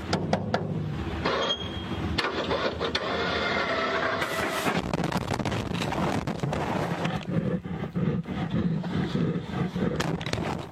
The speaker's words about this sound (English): then the door opening, and then the grizzly making a beeline to the camera and ripping it apart.